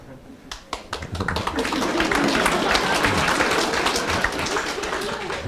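An audience breaks into applause: a few scattered claps at first, quickly swelling into dense, steady clapping from many hands that stays loud and sustained to the end.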